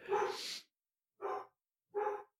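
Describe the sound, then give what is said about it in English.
A dog barks three times, one longer bark followed by two short, sharp ones spaced about a second apart, fairly loud with silence between them. “We'll be right back after this dog break.”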